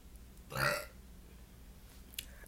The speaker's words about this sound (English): I got a burp again. I'm so sorry, guys. It's like a burp, but it's also like a pre puke.